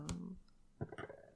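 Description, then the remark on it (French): Soft metallic clinks of bracelets, one near the start and a small cluster shortly after, quiet with no talking. “Désolé pour le bruit des bracelets la flemme de refaire.”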